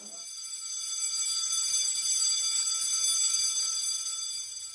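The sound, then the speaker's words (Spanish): An electric school bell rings loudly and continuously for nearly five seconds to signal that classes have begun, a steady, shrill metallic ringing with no pauses and no voices. “Al escuchar el sonido de la campana, significa que las clases han empezado”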